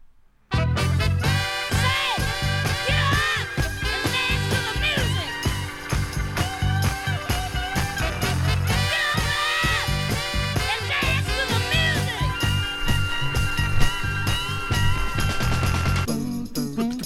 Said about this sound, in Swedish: Mina vänner, ja. jag tror att vi ska ut på låt nummer två. Mm. Och den, den låter så här.